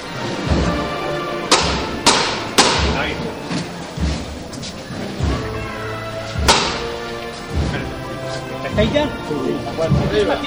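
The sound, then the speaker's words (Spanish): In a procession in Jaén, the knocker on the float of Nuestro Padre Jesús strikes sharply three times in quick succession to call the bearers, then once more a few seconds later. The strikes are loud, over a steady murmur of crowd and voices, as the float faces the second slope. “Nuestro Padre Jesús van a hacer de nuevo la llamada”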